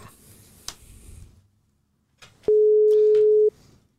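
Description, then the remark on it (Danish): A phone line's ringing tone while calling former foreign minister Per Stig Møller: one steady, loud electronic beep lasting about a second, preceded by faint rustling and handling noise, with no one talking. “Jeg ringer lige til Per Møller.”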